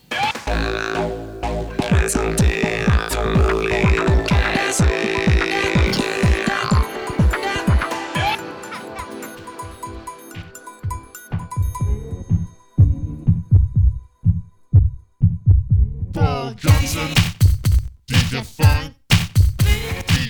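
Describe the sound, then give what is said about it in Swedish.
A short musical bumper jingle played before a song, with deep, throbbing thumps and layered tones, giving way after a pause to sharper rhythmic beats. It plays loud and upfront, with no voices. “Vi hör bumper och sen så hör vi låten.”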